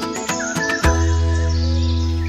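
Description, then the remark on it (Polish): A flock of greater white-fronted geese calling in flight: a few short, sharp yelps at the start, then one long, steady, slightly wailing call that holds through to the end, with no talking. “Słyszeliście Państwo klucz gęsi na przelocie.”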